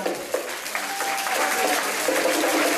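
An audience claps steadily for the previous bands, a dense wash of applause that holds at an even loudness throughout, with a faint whistle-like tone threading briefly through the middle.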